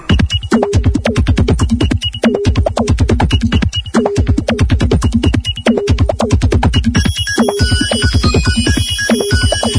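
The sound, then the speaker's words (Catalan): A theme tune of a programme on the radio station 9 FM plays alone, marking the hour, a loud, upbeat electronic piece with a steady pulsing beat and a repeating melodic pattern; bright high tones join in near the end. “I això vol dir aquesta, aquesta hora i aquesta sintonia que sona de fons, que qui ens acompanya a l'estudi és”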